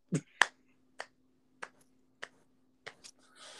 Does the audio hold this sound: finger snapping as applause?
yes